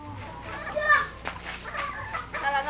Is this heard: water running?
no